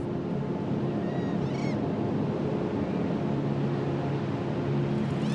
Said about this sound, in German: Weiter vorn scheint das Sandmeer ein abruptes Ende zu nehmen. Es sind die Wellen des Mittelmeers, die sich über Dünen und Muschelschalen hinwegsetzen. Kannst du das Rauschen des Wassers hören?